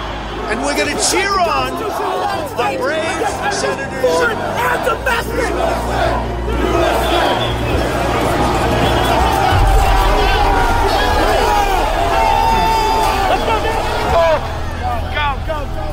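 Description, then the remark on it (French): A large, agitated crowd at the Capitol, several hundred of them growing ever more excited, roars continuously, many voices shouting and cheering over one another in a dense, unbroken wall of noise with a low rumble underneath. “Parmi la horde qui s'excite de plus en plus, plusieurs centaines d'individus comprennent que le jour promis est bel et bien arrivé.”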